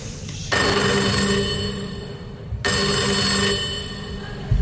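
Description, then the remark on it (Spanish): A telephone bell rings twice, each ring a loud, bright metallic trill lasting about two seconds with a brief pause between, starting again at the end. No voices are heard. “¿Quién será? ¿Será la llamada de Dios?”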